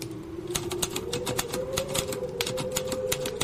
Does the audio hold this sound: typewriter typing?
yes